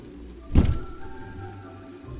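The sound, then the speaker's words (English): A knock at the door: one dull, heavy thud that fades quickly, followed by quiet low background hum with no voices. “Someone's at the door.”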